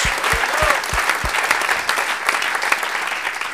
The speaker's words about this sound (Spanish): Démosle un buen aplauso al Señor Jesucristo. Gloria a Dios.